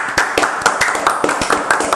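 A round of applause: quick, steady claps repeating at an even rhythm, sharp and fairly loud, with no voices over it.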